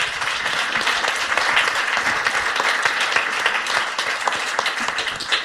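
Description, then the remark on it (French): A crowd applauds a speaker after a talk, dense overlapping claps forming a continuous wash of sound at a fairly loud, even level throughout, with no one speaking. “on peut l'applaudir.”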